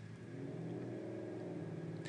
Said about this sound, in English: I'm sorry for the motorcycle noises too. I live near a street anyway